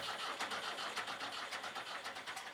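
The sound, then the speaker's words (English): A tractor engine cranks over and over in a steady, rapid chugging rhythm, loud, sputtering without ever catching and roaring to life because no gas was put in the tractor. “And there were days when forgetful Fred forgot to put gas in the tractor.”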